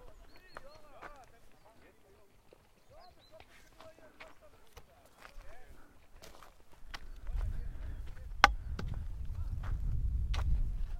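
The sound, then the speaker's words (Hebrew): Horses' hooves clip-clop in a steady run of sharp knocks that grow louder toward the end over a rising low rumble, with a person speaking briefly early on. “מה זה באים סוסים?”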